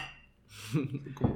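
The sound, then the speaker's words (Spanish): Glasses tap together in a quick toast late at night, a short bright clink near the end, with soft voices murmuring. “Cheers. Salud.”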